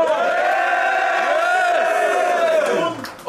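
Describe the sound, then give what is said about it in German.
A crowd cheers and yells loudly for Little Cedo after he lost to his strongest opponent, many voices blending into one sustained roar of whoops and shouts that holds steady for about three seconds before tapering off. “Also macht mal Lärm für Little Cedo!”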